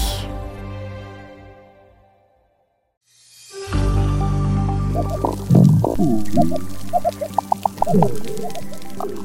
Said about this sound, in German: Klappern, Schnurren, Knarzen. In Korallenriffen geht es teilweise recht geräuschvoll zu. Was das über den Zustand eines Riffs verrät, dazu später mehr.